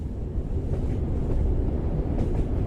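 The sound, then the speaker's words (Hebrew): A steady low rumble with a dense, faint clatter of train wheels rolling over quiet track, filling the carriages, continuous, with no voices and a hint of wind noise throughout. “חוץ מהרעידות של הגלגלים על המסילה השקטה, היה שקט.”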